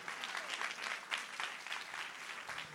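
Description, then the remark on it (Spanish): Sustained audience applause given to Jesus fills the whole stretch, a dense, steady patter of many hands clapping at a fairly even level, with a few sharper swells along the way. “Alguien que le dé un aplauso fuerte a Jesús.”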